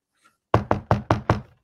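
Five quick knocks of knuckles on wood in an even rhythm, each a sharp thud with a short ring, after a brief near-silent pause.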